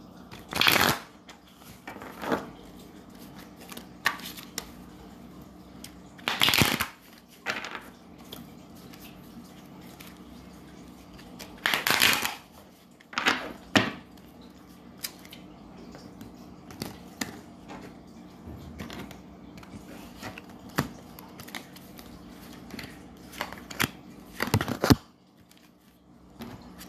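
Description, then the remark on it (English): A deck of tarot cards being shuffled, with several sharp riffling bursts spaced irregularly between softer handling and sliding sounds, no voices present. “But um, we're going to shuffle.”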